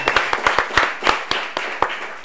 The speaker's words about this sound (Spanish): Un aplauso para el chistólogo número uno de Venezuela,